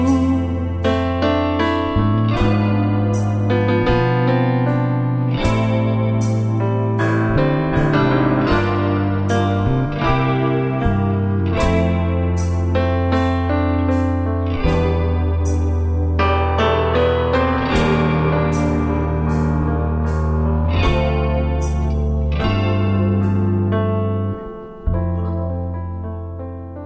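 A newly written Japanese ballad song plays at full, steady volume, with sustained harmonies over low bass notes and regular strong beats, briefly dipping near the end.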